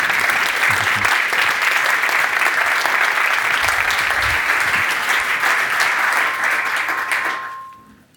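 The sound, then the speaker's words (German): Sustained applause from an audience welcoming speaker Manuel Vermeer, a dense steady patter of many hands clapping at an even loudness for about seven seconds, then quickly fading out at the end. “Herzlich willkommen, Manuel Vermeer. Applaus”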